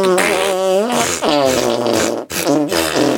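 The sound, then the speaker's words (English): A loud run of arm-fart noises: buzzy, sputtering blasts with a wobbling pitch, coming in about three sustained bursts separated by brief breaks, with no talking. “i cordially invite you to punk rock arm fart yeah. your way out of here”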